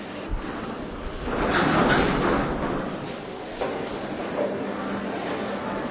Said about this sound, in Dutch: Roltrappie.